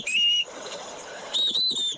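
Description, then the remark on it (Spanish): A shrill, piercing whistle in a voice note sounds in two long bursts, its high tone wavering slightly, separated by a short stretch of rough, noisy background hiss. Loud, with no talking. “Qué daño ese silbido.”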